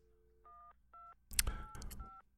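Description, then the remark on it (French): A short sequence of electronic phone keypad beeps plays at a steady pace, the tones changing pitch from press to press, then a burst of noisy clatter breaks in over the last few. “C'est la, mélodie téléphone que tu es en train de noter.”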